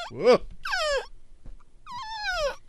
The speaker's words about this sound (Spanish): ¿Quién llora en una estación de radio? Oh. Estás llorando.